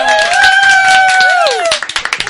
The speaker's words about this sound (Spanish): Vamos a dar un fuerte aplauso a Estela Celdrán, Salo Gómez y Sandra Tejero.